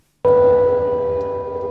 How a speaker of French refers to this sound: Une sirène comme symbole de soutien aux personnes victimes de la catastrophe de Tchernobyl. Les plusieurs milliers de manifestants se sont couchés ou accroupis autour du port de commerce de Cherbourg sous la pluie battante.